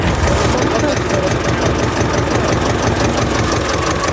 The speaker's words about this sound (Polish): Traktorem może nas podwiezie.